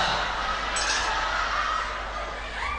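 household object, glass bottle clinking

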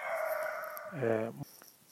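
bird, birds calling nearby

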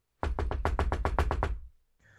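household object, knocking on a door

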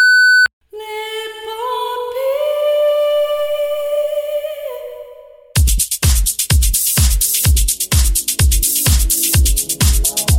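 signal or alarm, electronic beep tone

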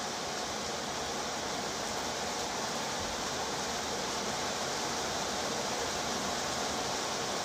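nature, heavy rain falling

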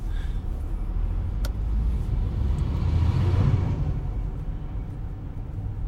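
vehicle, car pulling over

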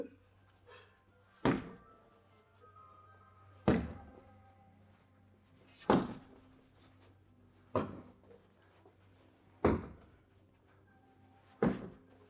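impact, punches landing

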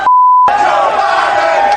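crowd, crowd chanting

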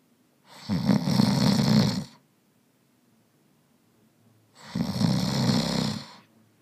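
sound effect, snoring sound effect

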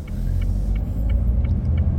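vehicle, car turn signal clicking

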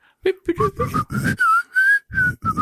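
human body sound, person whistling a tune

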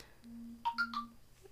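signal or alarm, mobile phone ringing

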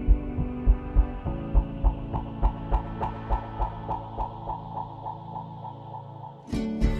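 sound effect, heartbeat sound effect

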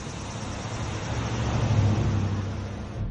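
vehicle, car driving away

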